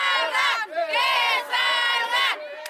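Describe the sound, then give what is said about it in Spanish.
A crowd of factory workers protesting in Ciudad Juárez, Mexico, at factories of United States companies producing on the Mexican side of the border, chants loudly in unison, voices rising and falling in repeated rhythmic phrases, energetic like protesters shouting a slogan together. “es una protesta de trabajadores y trabajadoras de fábricas de Estados Unidos que producen de este lado de la frontera”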